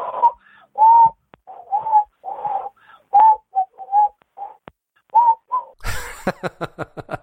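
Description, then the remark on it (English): A person whistles a string of short, clear notes with brief pauses between them, fairly loud, then breaks into a rapid, raspy fluttering trill at the end. No one speaks. “I heard that you can whistle. Can you do some whistling for me?”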